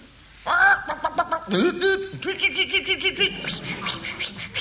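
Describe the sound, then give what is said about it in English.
A person imitates a chicken, producing a run of warbling, throaty clucks and squawks, rising and falling in quick bursts for several seconds. “And can you do a chicken for the boys and girls? I can do a better chicken.”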